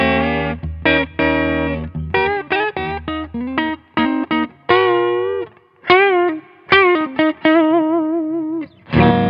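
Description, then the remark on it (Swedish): A Reverend V electric guitar with P19 pickups plays a loud, overdriven riff of short chopped chords and sustained bending notes with vibrato, separated by brief pauses, with no talking. “Man hör ju att de här P19 är nästan lite snällare.”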